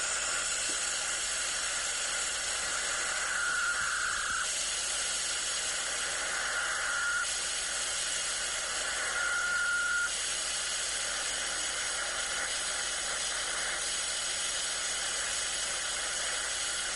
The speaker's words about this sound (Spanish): Ese es el sonido de las Perseidas, el sonido de las estrellas fugaces. Volvemos a escucharlo, escuchad bien. Pues así suenan las estrellas fugaces en el SDR.